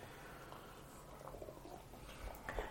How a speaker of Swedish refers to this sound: Vi kan ju prova att hälla upp nu.